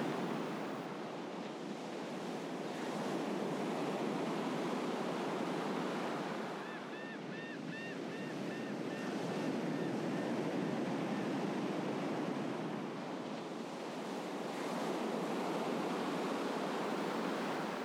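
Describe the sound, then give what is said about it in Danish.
Steady surf washes and breaks on a sunny beach, a broad continuous roar that swells and eases in slow surges, with faint seagull calls briefly audible midway. “Du kan høre havet og havmågerne.”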